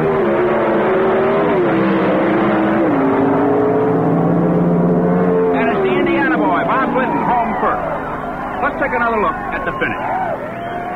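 Two Pro Stock drag race cars launch from a standing start down a 1,320-foot quarter-mile strip with a loud, sustained engine roar that climbs in pitch, then fades as a jumble of crowd noise fills in behind.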